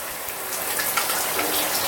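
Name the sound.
shower water running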